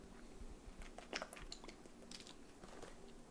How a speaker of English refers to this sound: So let me get a sip of water here.